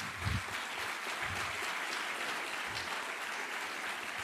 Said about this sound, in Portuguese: Segundo lugar, aplauda ao Senhor com força.